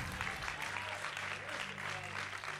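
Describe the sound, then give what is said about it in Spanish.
An audience applauds steadily for a few seconds, a dense, continuous wash of clapping with a low hum of voices and sustained tones underneath. “Aplauda eso.”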